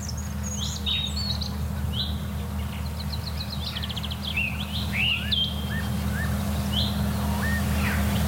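song thrush singing

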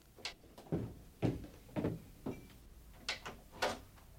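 door opening

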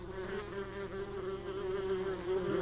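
wasp buzzing

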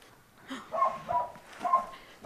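hunting dog barking

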